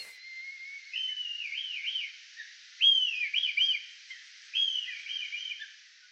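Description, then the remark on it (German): A red kite calls three times in a row, each a high, wavering whistle that rises and then quavers downward, fairly clear against a quiet background with no voices. “Der Rotmilan”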